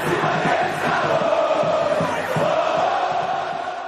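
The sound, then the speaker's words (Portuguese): A huge football stadium crowd of Atlético Mineiro supporters roars and cheers without pause, a dense, steady wash of thousands of voices holding at a loud level throughout, with no single speaker standing out. “Atlético Mineiro tem a maior bandeira do mundo e uma torcida que vibra o tempo todo.”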